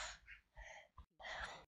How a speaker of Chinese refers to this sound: 打着哈欠。